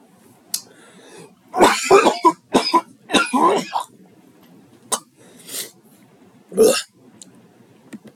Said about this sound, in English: Forgive my phlegmy coughing there. Um, still getting over the last bits of being sick from over the weekend